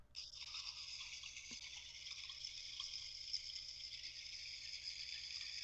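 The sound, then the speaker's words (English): A bat sound effect: a dense, continuous wash of high-pitched squeaky chittering that holds steady for several seconds over a faint low rumble, with no voices. “I was going to say, is that supposed to be bats or?”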